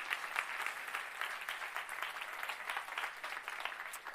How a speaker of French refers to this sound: J'aimerais saluer tous ceux qui nous suivent sur Internet. Est-ce qu'on peut les accueillir Est-ce que vous pouvez les applaudir